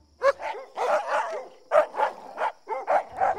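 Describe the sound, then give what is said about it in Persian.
Two black dogs barking loudly, a rapid run of about ten sharp barks in quick, uneven succession, with no one talking. “بازرگان به خیشتن مشغول بود و همی گریست که پیری دیگر با دو سگ سیاه در رسید و سلام داده پرسید که”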